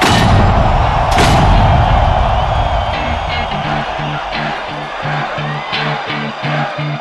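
A loud, roaring crowd of screaming Fortnite fans fills a virtual in-game rap concert held on Saturday 2 December, with a big booming blast early on. A few seconds later a steady, thumping bass beat kicks in and carries through to the end.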